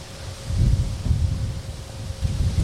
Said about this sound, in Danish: Det er derfor, der ikke er lige noget lyd ud over en masse blæst.